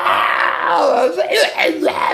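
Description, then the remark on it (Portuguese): A voice lets out rising and falling wails and yells, imitating the screams of people on a roller coaster, loud, for about two seconds. “Os brinquedos são massa, uhul, o roller coaster montanhas russas aqui para nós, né? Nos alucinam e nos tiram gritos da boca.”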